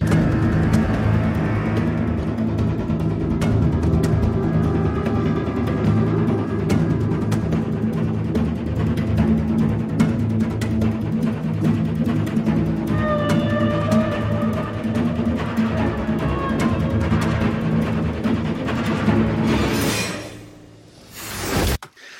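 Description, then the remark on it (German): Cinematic sound design of a shark swimming toward the screen, opening its mouth and swallowing everything: a dense, loud, low rumble holds for about twenty seconds, then a sudden whooshing gulp cuts it off, followed by a brief hush and a final thud. “So, jetzt haben wir ganz am Schluss diesen Hai, der auf die Leinwand zuschwimmt, das Maul aufreißt, zack, alles verschluckt und erst dann geht's auf den Wal”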